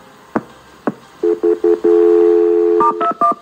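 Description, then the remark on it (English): Two sharp clicks, then a quick series of loud telephone keypad tones, a longer steady tone, and a few final beeps at a higher pitch as a phone call is transferred to the Ocean City Police, with no one speaking. “I'll connect you to the police. Stay on the line.”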